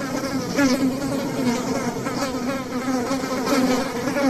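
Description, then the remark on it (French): A dense, steady drone of many honeybees buzzing, a continuous humming swarm with slight wavering pitch and no voices. “Expliquez-moi comment l'abeille fabrique cette gelée royale on sait un petit peu comment ça se passe pour le miel, mais c'est pas du tout la même chose.”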